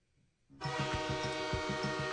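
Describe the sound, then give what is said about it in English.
After a brief near-silence, a loud train horn sounds and holds steady, with a rhythmic chugging beat pulsing underneath. No voices are heard. “He's going to tell us, he's going to say, baby, woo, choo choo.”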